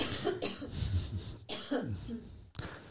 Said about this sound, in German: Entschuldigung, ich musste gerade mal husten.